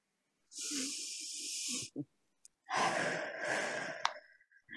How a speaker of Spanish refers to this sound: Así que gracias, gracias, gracias. Tomamos una respiración profunda y abrimos los ojitos.